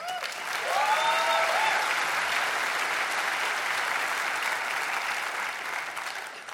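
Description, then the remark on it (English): A large church crowd bursts into sustained applause welcoming the church's pro-life pastor before his pro-life report, steady and fairly loud throughout, with a brief cheer or voice rising near the start before the clapping carries on evenly. “Give a warm welcome as you'll hear a report regarding pro life by our pro life pastor,”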